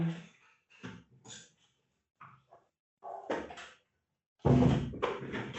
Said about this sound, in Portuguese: Deixa eu fechar um pouquinho a porta.